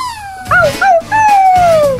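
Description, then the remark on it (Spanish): A voice imitates a neighbour's crying puppy: two short, high whimpers followed by a long, sliding howl that falls in pitch, fairly loud with no other talk. “Llevo escuchando que eh, algún vecino mío, no sé si de mi edificio, eh, me inclino más que por el bloque de enfrente, debe tener un cachorrito de perro, porque, exacto, eso se oye todo el rato, ¿sabes?”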